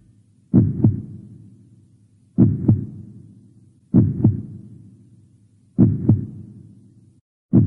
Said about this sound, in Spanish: ¿Lo escuchan? Suena hermoso. Es eh, un corazón latiendo, evidente, ¿no? Para mí lo es, uno de los sonidos más hermosos que se pueden escuchar jamás. Una melodía rítmica grave, profunda